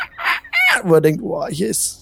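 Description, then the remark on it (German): A man's voice lets out a couple of loud, shrill, gliding cries that mimic wild animals screaming in the jungle, then slips straight back into ordinary speech. “Ihr hört um euch herum im Dschungel das beständige Schreien der Tiere, die wie wahnsinnig manchmal ähm, einfach nur schreien, so, ah, ah,”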